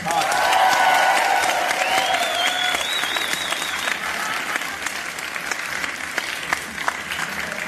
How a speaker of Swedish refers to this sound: Han är också en av landets mest älskade komiker. Gott folk, ge en varm applåd till Jonathan Unge!